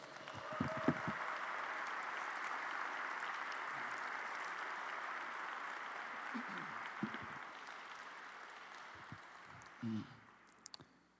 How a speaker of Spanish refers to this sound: Amén. Dale un fuerte aplauso a Jesús.